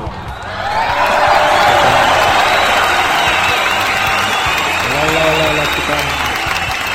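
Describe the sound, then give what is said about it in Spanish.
Sustained applause from a live radio show audience greeting an artist guest, a dense wash of clapping that swells quickly and holds steady for several seconds, with crowd murmur and a few voices mixed in underneath. “Fuerte el aplauso.”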